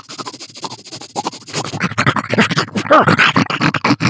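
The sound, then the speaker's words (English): A person imitates the polar bear dog of Korra panting and sniffing: quick, rhythmic breathy huffs, growing louder and busier toward the end, with bits of voiced noise mixed in. “And he like at one he at one point was just panting and sniffing and, and sort of, you know, he's like,”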